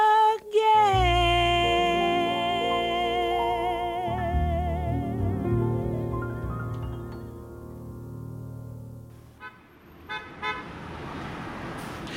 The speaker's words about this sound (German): Das ist der Sound of New York City. Das wird eigentlich die ganze Zeit gehupt. Eigentlich immer, wenn eine Ampel grün wird, habe ich das Gefühl, wird einfach gehupt, weil jemand zu langsam ist.